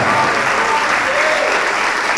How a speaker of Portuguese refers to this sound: Vamos aplaudir mais, igreja.